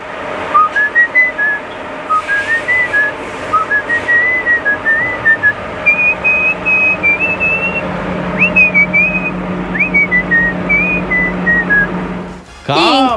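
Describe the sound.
A person whistles a lively melody, a clear run of pitched phrases rising and falling with short gaps, fairly loud over a low steady hum, ending with a brief noisy rustle.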